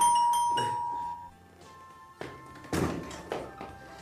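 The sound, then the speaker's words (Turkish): A doorbell rings with a sustained chime, followed by several loud knocks or thuds on a door as a man at the door keeps ringing and knocking insistently, with no talking. “Kapı bu kadar çok çalınır mı canım?”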